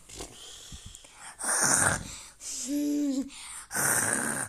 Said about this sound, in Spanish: ahí está roncando. El papá, Ya saben. Sí, el, el papá está roncando, sí.